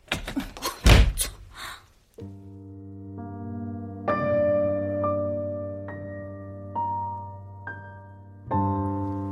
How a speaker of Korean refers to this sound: 우리는 바로 코앞에서 문이 닫히는 것을 바라보기만 했다.